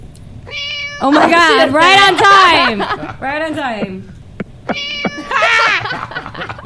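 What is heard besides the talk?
cat meowing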